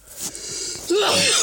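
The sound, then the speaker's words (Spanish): One sharp sneeze bursts out after a brief breathy intake, loud and noisy with a voiced squeak at its peak, then trails off into a breathy hiss. “Jesús.”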